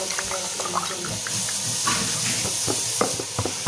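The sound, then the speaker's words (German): A steady hissing, gurgling flow of liquid being poured into a glass, continuous for a few seconds, with faint clinks and splashes along the way. “Einschenken.”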